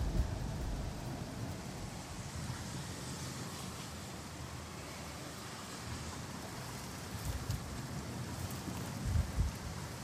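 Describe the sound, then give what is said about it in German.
Steady, dense rain pours down during a thunderstorm with lightning, raining in, without a break, a continuous hissing wash with heavy low rumble underneath and a few slightly stronger gusts near the end. No voices. “Donner, äh, äh, es regnet rein.”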